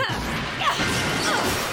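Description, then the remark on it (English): Loud crashing impacts follow one another in quick succession as a line of doors is kicked in with flying kicks and caves, with splintering, cracking debris and a few whooshing swings between the thuds. “Amazing how fragile these things are each door caving in like it's made of cardboard.”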